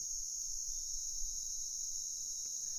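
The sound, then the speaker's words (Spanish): A continuous, steady buzz of cicadas in the jungle drones without pause, high-pitched and shimmering, with a faint low rumble underneath and no voices present. “También recuerdo el continuo sonido de las chicharras están ahí todo el tiempo, en especial en las tardes, ¿no?”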